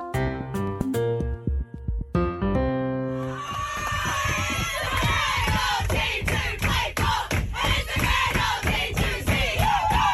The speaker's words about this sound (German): So haben die australischen Spielerinnen ihren Sieg gegen Dänemark im Achtelfinale gefeiert. Das war im Bus und die Freude unüberhörbar riesengroß.